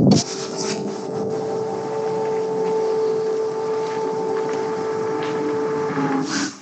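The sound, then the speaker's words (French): A steady, droning air defence air raid siren holds one pitch for several seconds over a rumbling, noisy background, with no one speaking, in Kamenets-Podilsky, Ukraine, during Russia's war against Ukraine. “En attendant, mon ami, j'entends les une sirène de, la défense aérienne.”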